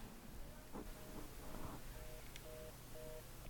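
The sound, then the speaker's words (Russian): A telephone busy signal heard after answering a ringing phone: a series of short, evenly spaced beeps in a steady rhythm, moderately loud over a hissy, rumbling background. “На этот раз ответ – короткие гудки.”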